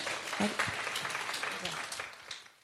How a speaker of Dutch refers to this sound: Zullen we hem een applaus geven?